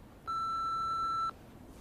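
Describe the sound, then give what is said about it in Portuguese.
A single steady electronic answering machine beep sounds clearly for about a second against a quiet background, then cuts off abruptly. “Deixe o recado após o bip.”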